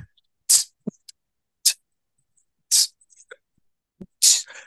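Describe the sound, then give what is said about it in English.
Beatboxing in a beatbox-off: a voice making percussive mouth sounds, sharp hissing snare-like bursts alternating with soft low kick thumps in a loose, steady rhythm, with no talking. “We'll, we'll do a beatbox off.”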